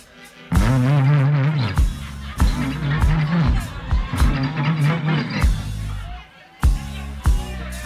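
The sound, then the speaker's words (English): A man's voice imitates his old car with a 472 engine cranking and failing to start after running out of gas, making loud, repeated sputtering bursts in an uneven rhythm. “I'm sitting there trying to start my car, y'all, and it sounds like this.”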